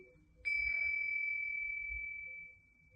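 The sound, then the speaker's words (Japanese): A singing bowl used for sound healing in Mexico is struck once, then rings with a clear, steady metallic tone that hums for about two seconds before fading, over a faint low rumble. “シンギングボウルのサウンドヒーリング”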